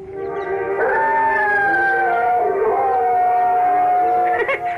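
A dog howls loudly and steadily in long, wavering tones that slide up and down, sustained through nearly five seconds over a dense, harmonic background that could be singing voices.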